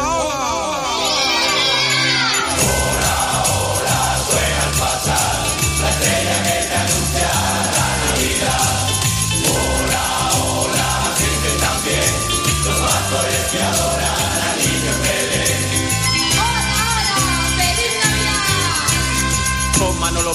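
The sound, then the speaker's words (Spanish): The 2024 Christmas carol of Spanish radio station Deportes Cope plays loudly and continuously, a full festive arrangement with bagpipes, a steady driving beat and bright melodic layers filling the whole stretch. “Y como no podía ser de otra manera, el Villancico de Deportes 2024 de Deportes Cope mira al cielo y va dedicado a Pepe Domingo Castaño.”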